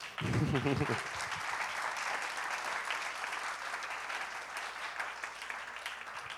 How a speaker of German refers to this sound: Ähm, bin so dankbar, für Leiterschaft, die nicht machtbesessen ist. Wollen wir der Leiterschaft mal einen Applaus geben?